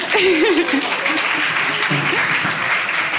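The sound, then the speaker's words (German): A live audience at a festival event in Munich claps steadily for a few seconds, a dense, even burst of applause with a voice or two faintly audible underneath. “Kleiner Applaus.”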